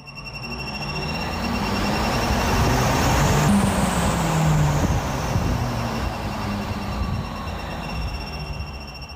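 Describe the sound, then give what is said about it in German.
A shrill, sustained squeaking whine rises in pitch and then slowly falls, riding over a loud, steady rumble of a passing vehicle. No one speaks. “Wem sich jetzt so ein kleines bisschen durch das Quietschen die Nackenhaare sträuben, ja, so geht es uns auch.”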